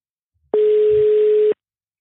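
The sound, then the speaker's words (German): A single telephone ringing tone of an outgoing call: one steady, mid-pitched beep lasting about a second that starts and stops abruptly, followed by silence. No one speaks. “Es klingelt.”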